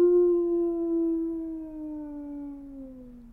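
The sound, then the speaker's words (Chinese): A single long wolf howl: one sustained, tonal wail that begins strong and slowly glides downward in pitch, fading slightly over about three seconds, with no other sounds. “传说中，每当月圆时分，森林深处就会传出狼嚎。”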